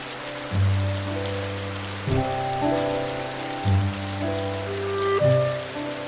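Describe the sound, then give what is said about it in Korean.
Steady winter rain falls at night, hissing in the background while soft, sustained musical chords swell in every second or so, the downpour continuous and even beneath the gentle melody. “촉촉한 겨울비가 오는 밤입니다.”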